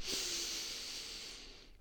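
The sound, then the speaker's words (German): A single long, airy breath in and out during a group breathing exercise. It is fairly loud, with a steady hiss of air that trails off near the end; no one speaks. “Ja, und dann atmen wir gerne heute mal nochmal alle gemeinsam zusammen ein und aus.”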